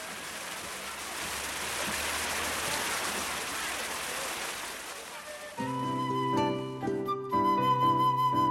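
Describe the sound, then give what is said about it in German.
A water fountain shoots up in front of the Hahungmun gate, spraying with a steady, hissing rush of falling water for about five seconds, then gives way to tonal music that continues to the end. “schießt eine Wasserfontäne vor dem Tor Hahungmun in die Höhe und bricht das Sonnenlicht in seine Regenbogenfarben.”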